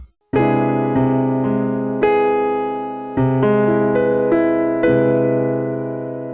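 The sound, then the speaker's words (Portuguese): An open drop 2 and 4 voicing of an augmented major seventh chord played as a short series of sustained, ringing chords, struck clearly with no talking, each one blooming and fading into the next. “Um drop 2 e 4 aí para fazer dar espaço para ele respirar, né, para você conseguir saborear as tensões e extensões que o acorde gera.”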